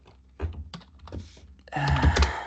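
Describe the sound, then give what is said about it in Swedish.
Quick, clattering keystrokes on a computer keyboard as someone types a Google search, starting as a few scattered taps and building into a denser, louder burst of typing near the end, with no voices. “Jag ska bara googla här.”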